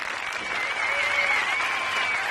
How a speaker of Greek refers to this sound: Ορίστε, έχει και το χειροκρότημά της από την αυλή του, του Μεγάρου Μουσικής.